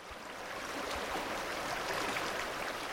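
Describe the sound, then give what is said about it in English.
A snow-fed creek flows steadily through low sagebrush in a high basin below the Continental Divide, its continuous rushing and babbling water filling the whole stretch at an even level, with no voices present. “In a high basin below the Continental Divide, where a snow fed creek flows through low sagebrush”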